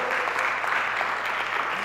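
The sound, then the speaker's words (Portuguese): A church audience applauds the name of the Lord, many hands clapping steadily in a dense, even wash of sound. It holds at a fairly strong level for about two seconds, with no voices standing out. “Você pode aplaudir o nome do Senhor, amados?”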